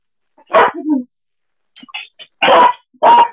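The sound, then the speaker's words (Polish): A dog barks in short, loud bursts: one sharp bark, a few softer yips, then two more strong barks in quick succession. “Piesek.”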